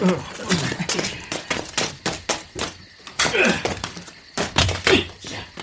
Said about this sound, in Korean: 아저씨가 냉동 탑차 뒷문을 열었다.